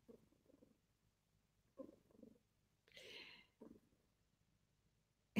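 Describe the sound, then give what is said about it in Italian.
A cat named Zagara purrs in soft, rhythmic bursts, with a brief breathy hiss in the middle and a short sharp noise at the very end; no one speaks. “Zagara sta facendo le fusa, sì.”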